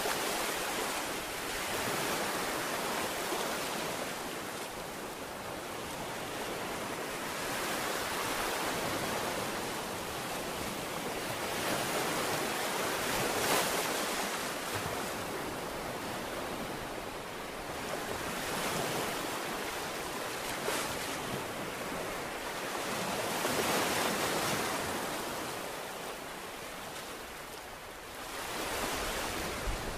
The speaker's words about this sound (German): Und jetzt hört mal, wie die Wellen hier am Strand von Barkenberg und Nonnewitz für euch rauschen.